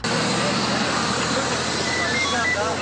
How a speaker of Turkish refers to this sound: İstanbul Havalimanı'nda hareketli dakikalar yaşanıyor. Tabii gelen yolcu sayısı çok fazla olduğu için körüklü otobüslerin biri gidiyor, biri geliyor.